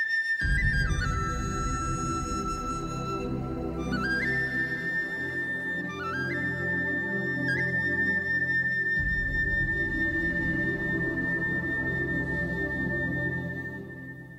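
A TV drama theme song plays, its instrumental opening carried by a sustained, sliding melodic lead over full, steady accompaniment. Loud and continuous throughout, with no singing or talking.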